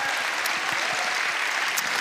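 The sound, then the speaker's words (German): An audience applauds steadily for someone on a big stage, a dense wash of many hands clapping at once with no pauses, holding an even, fairly loud level throughout. “Große Bühne, großer Applaus.”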